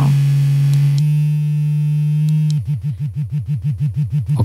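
A flexible, curved G-spot vibrator, very powerful, hums with a steady, low-pitched buzz on its lowest setting, then switches to a rapid rhythmic pulsing pattern for the last couple of seconds. No one speaks.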